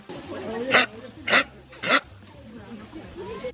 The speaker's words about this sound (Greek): Διότι είναι ένα καπιμπάρα.